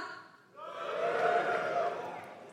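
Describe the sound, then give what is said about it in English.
A crowd of audience members who are cisgender men lets out a loud, sustained cheer when asked to, rising sharply after a brief quiet moment and holding steady for about two seconds, a mass of mixed voices shouting together. “That was a that was a confident cheer, wasn't it?”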